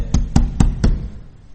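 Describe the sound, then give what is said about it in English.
Four heavy, evenly spaced thuds as people pound on the wooden side of the ark, deep and booming, with no voices, trailing off into a low rumble. “The water's up to their waist and they're pounding on the side of the ark saying, let us in.”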